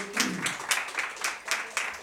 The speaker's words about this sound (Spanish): oferta de palmas al Señor con todo su corazón, hermano.